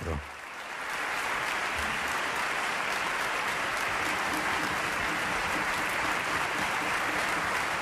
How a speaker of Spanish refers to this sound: Escuchemos esa ovación que están recibiendo los músicos en directo desde el Teatro Colón